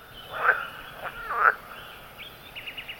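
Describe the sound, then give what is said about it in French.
Frogs croaking together, a few loud raspy calls followed by a run of quicker, fainter chirping pulses, with no voices. “Et moi, ce que je revendique, c'est le chant des grenouilles.”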